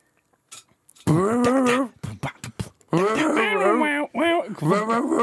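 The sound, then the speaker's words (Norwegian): A person imitates a dog barking, making three loud, drawn-out yelping barks, with short sharp clicks and knocks in the pauses between them. “Hvorfor faen bjeffer du?”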